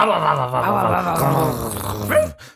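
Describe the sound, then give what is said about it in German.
People imitate dogs with their voices, a continuous stretch of vocal growling and barking noises lasting a couple of seconds, fairly loud, ending abruptly. “Ähm, ja, das Hundebellen, Noren, Jauzen, whatever wird lauter. Ich mach mal kurz vor wie. Du musst mitmachen.”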